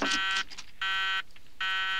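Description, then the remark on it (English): A beeping fax machine in a cabin sounds three loud, buzzy electronic beeps, each about half a second long and evenly spaced, with no voices. “drinking a lot of liquor and screaming at a beeping fax machine.”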